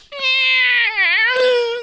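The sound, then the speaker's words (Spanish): A person imitates a cat with one long, drawn-out meow, the pitch wavering and dipping in the middle before rising again, loud with no other sounds around it. “Y que, pues, ¿dónde está el gato ahí maullando, güey?”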